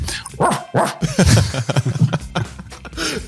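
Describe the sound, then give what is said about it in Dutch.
A dog barks and yips in quick, irregular bursts in the background, mixed with a few whiny whimpers; the sounds are fairly loud, with no talking over them. “Ja, met deze aflevering al sinds nog niet zoveel honden op de achtergrond gehoord.”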